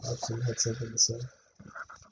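A dog pants and licks right up against the microphone, a run of quick, rhythmic wet huffs, then a brief pause and softer snuffling.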